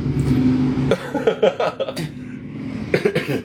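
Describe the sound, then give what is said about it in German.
A motorcycle with a broken exhaust goes by: a steady, low droning engine tone for about a second, then a string of loud, rough, sputtering bursts with short gaps between them. “Das war glaube ich ein Motorrad, ne?”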